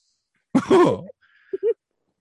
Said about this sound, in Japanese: 誰だ、今。もう咳払いしたの。僕じゃない。